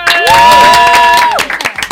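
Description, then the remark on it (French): A crowd applauds loudly for a slam poet, singer and performer being introduced on stage, while a long, steady high whistle or whoop rings over the noise for about a second, then the applause thins into scattered individual claps. “C'est notre slameuse, chanteuse, performeuse, on applaudit tous ensemble.”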